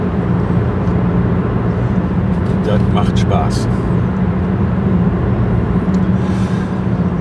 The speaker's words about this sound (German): Ja, das Schöne daran, wenn man jetzt hier abends äh, nach Hause fährt, da ganz weit vor mir ist irgendwo ein LKW, ansonsten hatte ich jetzt die ganze Zeit freie Straße.